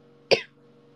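A single short, sharp cough bursts out, then fades quickly into a faint steady background hum with no talking.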